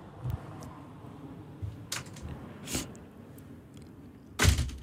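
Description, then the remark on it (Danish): A door slams shut with a heavy thud near the end, preceded by a few lighter knocks and clicks against a quiet background. No one speaks. “okay, der smækkede den.”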